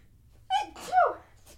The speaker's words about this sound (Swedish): Prosit gumman!